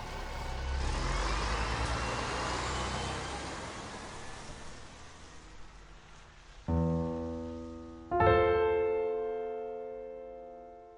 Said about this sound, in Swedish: Med en sista kraftansträngning tog han sig åter in i bussen och körde mot Ljusdal.